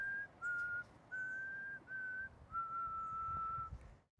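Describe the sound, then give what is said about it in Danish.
Someone whistles a simple tune in clear, sustained notes, with five or six held tones separated by short breaks over a faint background hiss, steady in loudness. “Til hver gang jeg havde råbt, tog han atter uanfægtet fat på sin fløjten.”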